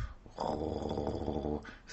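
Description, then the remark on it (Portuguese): A single drawn-out, rumbling snore from Pipo, a sleeping puppy, lasting about a second, fairly loud, with a throaty, slightly growly texture and no talking. “você só ouviu o ronco.”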